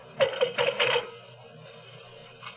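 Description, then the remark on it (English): A telephone bell rings in a short, rapid trilling burst as a call is placed to Rex, then falls quiet before a fainter, brief ring at the end; no one picks up and no voices are heard. “I tried telephoning Rex, but there was no answer.”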